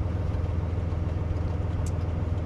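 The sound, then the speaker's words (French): A tourist train's diesel engine drones steadily at low revs, about 850 rpm, a deep continuous rumble with even pulsing and no talking, as the driver adds a little throttle on a flat section at 30 km/h in a station. “On l'entend, vous avez remis un petit peu du gaz là, parce qu'on est sur une partie plate.”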